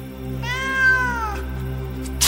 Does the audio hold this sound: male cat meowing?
yes